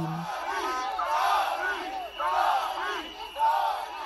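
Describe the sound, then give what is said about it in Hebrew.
A large crowd of thousands of protesters shouting and chanting together in front of the parliament building in Tbilisi, Georgia, a dense roar of many raised voices that swells in waves, with louder surges around the middle and near the end. “אמש יצאו אלפים להפגין מול בניין הפרלמנט, וכוחות המשטרה שוב ניסו לפזר את המפגינים בתותחי מים.”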